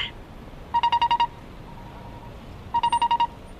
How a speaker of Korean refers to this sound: 네, 익숙한 소리죠. 횡단보도 건너갈 때 나는 소리였습니다.